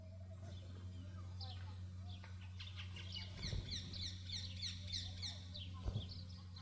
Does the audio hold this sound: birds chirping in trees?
yes